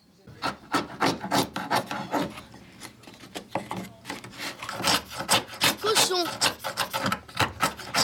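A wood chisel scraping and shaving wood, many short rasping strokes in quick, uneven succession, loud and dry throughout with no voices.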